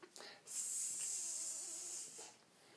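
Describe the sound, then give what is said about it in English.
A person makes a long, steady hissing sound with their mouth, imitating a snake, lasting about a second and a half, loud, with a brief breathy sound before it. “Speaking of snakes,”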